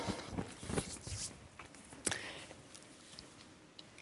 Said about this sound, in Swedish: Nu tror jag jag ställer ifrån mig det här eh, hjulet här ett tag så får ni kika på det lite så under tiden jag fortsätter.